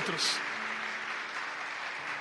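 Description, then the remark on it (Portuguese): An audience at a church service applauding Christ, a dense steady wash of many hands clapping at once for a couple of seconds, with a faint murmur of voices mixed into the noise. “¿por não das um aplauso a Cristo sentado como estás?”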